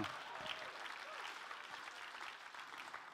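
crowd, audience clapping

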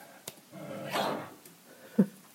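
animal, dog growling

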